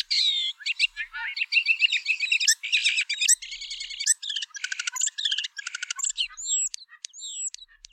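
A bird sings a rapid, continuous song of varied chirps, trills and buzzy phrases, close and clear, with sweeping whistled notes near the end and no voices.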